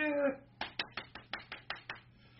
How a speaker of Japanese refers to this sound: 僕の声以外に拍手の音が聞こえるんですよ。で、拍手の音がすると自分、今の司会の人以外の音がここで聞こえてくるんで、えー、そっちに集中がいく。